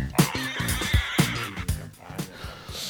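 Pigs squeal and grunt in a rapid series of harsh, loud, overlapping bursts, with no talking, recorded for a radio advertisement.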